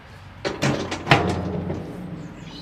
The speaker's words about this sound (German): eine Tür, die sieht aus wie eine Schiffstür. Wir können die auch mal versuchen aufzumachen.